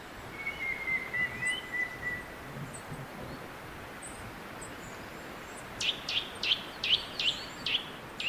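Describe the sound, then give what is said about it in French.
Birdsong in a Siberian forest at dusk: a long thin whistled note early on, then a quick series of sharp, repeated chirps near the end, all over a steady hiss of ambient rustle with no voices. “La forêt tropicale du Congo au petit matin, la forêt de Sibérie au crépuscule.”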